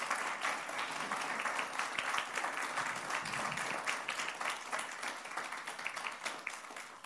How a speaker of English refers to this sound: So, could you guys, like, in way of applause, just tell these guys thank you, thank you, thank you.